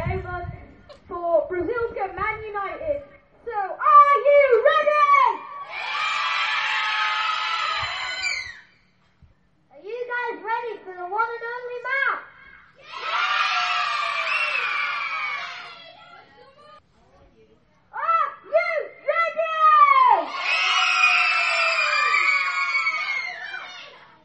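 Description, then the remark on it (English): Children's voices rise three times into loud, high-pitched group cheering, mimicking a football crowd roar for a pretend Man U versus Brazil match in Bridlington. Shorter bursts of vocal sounds fill the gaps between the cheers. “All that we can hear is cheers.”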